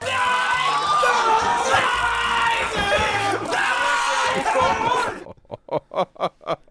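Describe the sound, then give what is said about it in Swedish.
An edited chorus of two men, one of them a singer, screaming together in a scream symphony: a loud, sustained, overlapping chorus, their pitches sliding up and down for about five seconds, then it breaks off into a quick run of rhythmic, choppy laughter. “Jag och ena …-brorsan helt enkelt, i någon form av skrik symfoni. Den som skriker lägst förlorar.”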